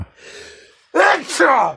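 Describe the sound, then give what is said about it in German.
A soft, drawn-out breath in, then a loud two-part sneeze with a voiced, throaty burst, heard on its own. “Gesundheit. Jetzt seid ihr alle krank.”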